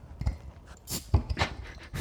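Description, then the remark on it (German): A dog pants in quick, breathy bursts as it comes up from behind, each huff pairing a low thump with airy hiss, repeating unevenly over two seconds with no one talking. “Ey, krass, der Hund, der Hund kommt von hinten, gell?”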